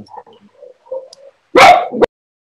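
Faint, soft whining tones lead into one loud dog bark with a quick second yelp right after it, then silence. No one talks.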